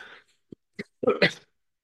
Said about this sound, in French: Attention, je vais tousser.